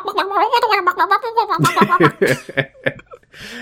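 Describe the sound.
A person's voice imitates a chicken clucking, starting with a warbling, wavering cackle that breaks into a string of short, choppy bursts, fairly loud.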